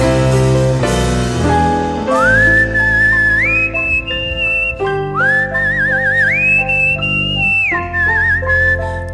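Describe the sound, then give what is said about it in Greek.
A clear, melodic whistle carries a rising, wavering tune with vibrato over a full musical backing, loud, as a song winds toward its finish. “Ωραίο το σφύριγμα, ό,τι πρέπει. Τελειώνει και το τραγούδι.”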